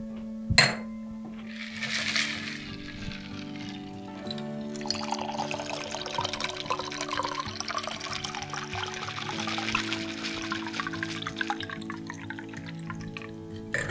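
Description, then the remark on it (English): A sharp clink of glass, then a pink cosmopolitan cocktail being strained and poured into a chilled Prosecco glass in a steady trickle for about ten seconds over a low, constant hum, with no talking. “then you're going to strain that into a chilled cocktail glass.”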